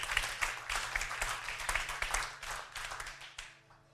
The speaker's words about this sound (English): Yeah. You, yeah, you can clap. You can clap. You can clap. I got two people clapping. Not for me.